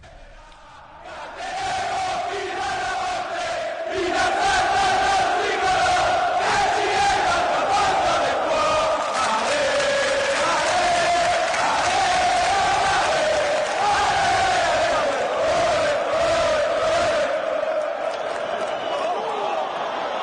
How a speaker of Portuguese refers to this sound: É, a curva sul é onde ficam os torcedores da Roma. E desde 1977 essa música é puxada pelos torcedores, né? Depois os gritos de Roma, Roma, Roma.